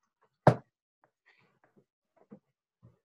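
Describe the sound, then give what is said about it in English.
One heavy, booming knock on the door of an elderly couple's home in a snowy town in Vermont, then a scattering of much fainter taps and small creaks, with no voices. “So, in a middle of a snowy town, somewhere in the middle of Vermont, an elderly couple heard a sound of three loud knocks on their door.”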